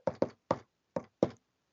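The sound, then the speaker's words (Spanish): Five sharp knuckle knocks on a wooden counter, in an uneven rhythm: two quick raps, a third, a pause, then two more. No voices are heard. “Sí, eso es un ruido de los nudillos en la mesa, mira. Estoy haciendo así en el mostrador.”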